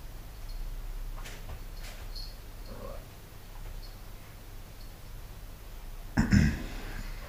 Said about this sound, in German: Blackie mauzt.